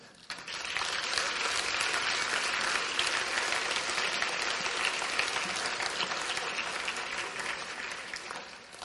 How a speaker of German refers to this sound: Und ich würde aber euch an dieser Stelle einfach herausfordern, ihn einfach trotzdem einen großen Applaus zu geben. Ähm, vielleicht einfach so laut, dass es bis ins Fichtelgebirge hört.